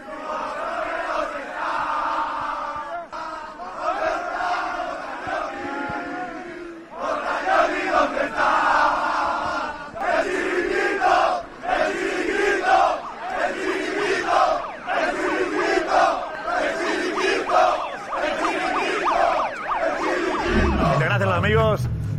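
A large crowd of Real Madrid football fans celebrating a Champions League win roars and chants together in loud, rhythmic bursts, voices rising and falling in unison, continuous throughout.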